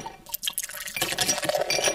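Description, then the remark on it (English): Blackberry Bird Dog whiskey being poured into a glass, a light clink of glass followed by a steady, bubbling glug of liquid filling it for about a second, with no talking. “Fucking pour you some bird dog.”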